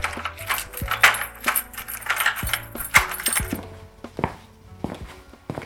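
Keys jingle and scrape in a lock, followed by a series of metallic clicks and thunks as the door of a family home is quietly unlocked and opened. No voices, and the sounds fade toward the end.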